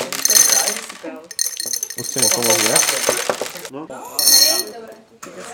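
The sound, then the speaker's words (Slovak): Small objects clatter and clink as they are dropped into a glass in several bright bursts, with brief ringing tones. A person speaks briefly between the drops. “Čiže my to dáme do toho pohára, čo je nejaký náš čas.”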